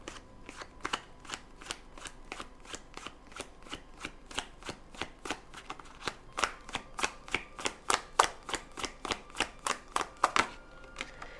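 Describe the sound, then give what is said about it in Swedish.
Tarot cards being shuffled before drawing cards for a reading, a steady run of crisp, rapid flicks and snaps that speed up and grow louder toward the end, with no talking. “Då ska vi se, då ska jag dra några kort.”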